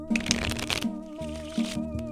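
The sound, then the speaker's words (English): A deck of cards is riffled and shuffled in a quick, crisp burst of flapping and snapping near the start, then fades as a steady musical tone carries on underneath. “We'll put them in two decks of cards, shuffle them up”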